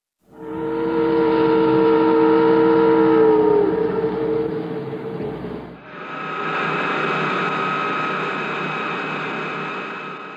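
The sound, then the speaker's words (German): A film audio clip: the deep, loud ship's horn of the Petrox Explorer blares steadily for about five seconds, then cuts to the loud, sustained mechanical whine and drone of a loading crane, with no talking. “Im Heimkino übrigens äh, klang dieses Schiffshorn der Petrox Explorer markerschütternd. Gleich danach folgte dieser äh, extrem laute Ladekran.”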